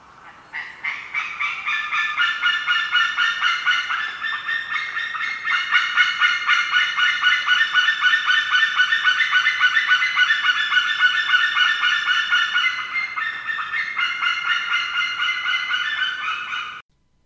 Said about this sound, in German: Ja, was ihr da gerade gehört habt, das war ein Seeadler. Der wird noch eine Rolle spielen heute.